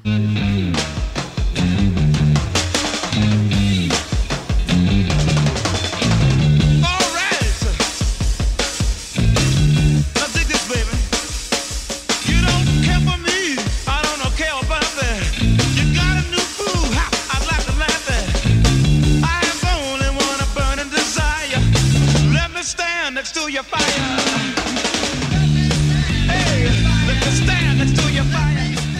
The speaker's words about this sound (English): The guitar is up high, the bass is down low, and there's all this room in between for all these great drum licks.